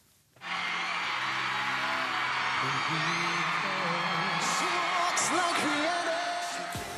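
A massive crowd roars and screams in sustained, dense cheering that starts abruptly and stays loud throughout, with shrill high-pitched shrieks and whoops rising above the wall of noise.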